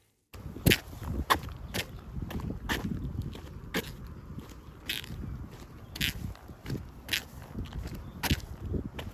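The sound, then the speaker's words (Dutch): Wet shoe soles squeak with each step as water is pushed through the sole, a steady walking rhythm of sharp, bright squeaks over a low rumbling background, with no talking. “Het, het piept altijd.”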